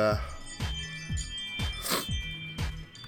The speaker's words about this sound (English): that's my phone going off